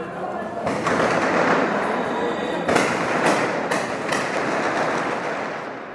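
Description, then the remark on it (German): Rifle salvos fired into the sky over Beirut by young militiamen positioned on cemetery walls, in rhythmic alternation, crack out in a handful of sharp, loud bursts at uneven intervals, punching through a dense, steady roar of crowd noise and indistinct voices. “In rhythmischem Wechsel feuert der Nachwuchs Gewehrsalven in den Himmel über Beirut.”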